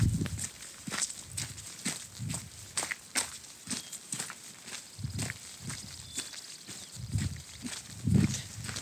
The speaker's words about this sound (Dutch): Je hoort de eerste stappen van mij als kerstverse hiker